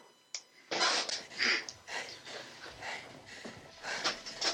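Heavy, rasping breathing at the start of a Lucasfilm film teaser comes in a steady rhythm of airy, hissing inhales and exhales, fairly loud and with no talking over them.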